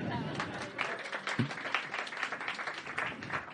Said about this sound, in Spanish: Podéis aplaudir también, ¿eh?